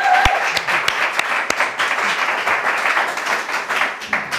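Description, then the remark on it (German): An audience breaks into applause for footballer Emre Can, a dense, crackling wash of many hands clapping at once that holds steady and fairly loud for about four seconds, with a few sharper individual claps standing out. “Ich würde sagen, kleinen Applaus für Emre Can.”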